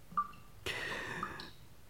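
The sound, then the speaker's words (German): A single faint water drip from a defective faucet plinks, followed by a brief, brighter splash-like ring that fades after about a second; a quiet sound with no talking. “Muss ausgerechnet hier ein defekter Wasserhahn sein?”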